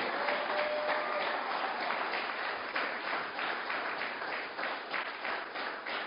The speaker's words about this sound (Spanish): hermano, dele palmas al rey.